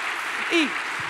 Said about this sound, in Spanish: vamos a aplaudir a Jesús porque no tenemos pena.